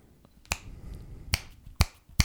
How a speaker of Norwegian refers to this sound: var det et bra knips? Ja.